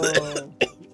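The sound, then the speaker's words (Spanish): Someone sputters out a short burst of harsh coughs after choking on water, three quick hacks with a brief pause before the loudest, followed by a raspy throat-clearing. “Sí, Me dio tanto asco la agua que me llegué a trapicar”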